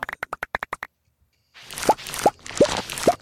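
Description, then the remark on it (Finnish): A rapid run of eight short, crisp taps, a brief pause, then four watery plops with rising pitch, spaced evenly over a soft rushing background, a video game plop sound effect. “Mä rakastan tuota Stardew Valleyn plop ääntä.”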